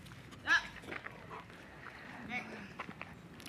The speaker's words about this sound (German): Klingt gerade Besuch von einem Hund. Wir ignorieren ihn.